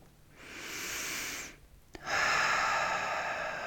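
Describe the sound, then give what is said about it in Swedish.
Two long, airy breaths: a slow, deep inhale through the nose, a brief pause, then a louder, fuller breath out like a long sigh that sweeps on to the end. No one speaks. “Så andas in genom näsan och ut genom munnen som en suck.”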